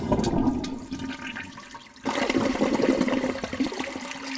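A toilet flushes in two surges, a rushing gush of water that dips briefly before a second loud swirl of draining water, filling the whole clip with no one speaking.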